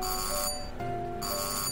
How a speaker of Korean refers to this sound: 뭐지? 현관문 초인종 소리였습니다.